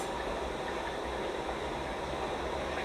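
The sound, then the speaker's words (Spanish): A steady, loud rushing roar of falling water from waterfalls at a lake surrounded by forest, a dense unbroken wash of sound with no voices over it. “En este momento es tan fuerte el, el ruido del agua que me adormece este ruido, me calma, me aquieta, me fundo en él.”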